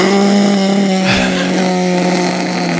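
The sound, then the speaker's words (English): Someone imitates the roaring engine of a motorboat on a lake with their voice, a loud, steady buzzing drone with a rough harmonic growl that holds for about three seconds, briefly surging partway through. “But the other thing is when people bring them to lakes and people are, it's supposed to be quiet and it's supposed to be relaxing, fishing, wading in the water.”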